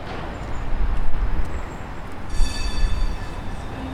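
A tram rumbles past, recorded on a dictaphone, and about halfway through its bell starts ringing brightly and keeps going over the heavy rolling noise until the end. No one speaks.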